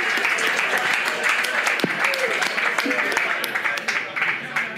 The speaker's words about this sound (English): Yeah, thanks very much. Big round of applause for our, our panel.